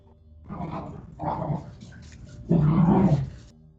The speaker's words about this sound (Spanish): el mi perro se acaba de poner loco también, güey.